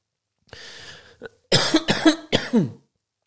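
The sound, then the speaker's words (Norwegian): A throat-clearing rasp followed by three loud, harsh coughs in quick succession, with no talking. “oh, skikkelig, så jeg ble hosten her nå.”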